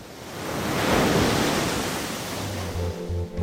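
Stormy lake waves crash in a broad, rushing roar that swells to a peak and then settles into a steady churning wash, with faint low sustained tones appearing toward the end.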